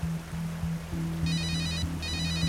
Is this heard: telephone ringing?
yes